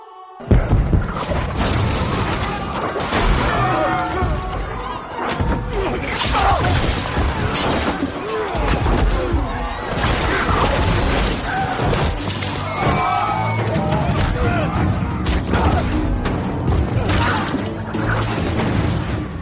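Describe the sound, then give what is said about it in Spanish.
A dense, loud battle soundscape: repeated booming cannon blasts and crackling arquebus fire, with crashes and shouting layered throughout, continuous and chaotic from start to finish, as cannons fire at Turks massing at the city walls. “varios tiros de cañones resonando por lo alto buscando matar a los turcos que se agolpaban.”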